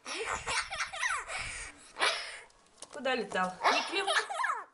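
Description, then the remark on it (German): A magpie mimics a toddler's giggling laughter in bursts of high, chattering, rising and falling trills, fairly loud, with brief pauses between outbursts. “Warum diese Elster ausgerechnet das Gelächter eines Kleinkindes imitiert, ist nicht bekannt.”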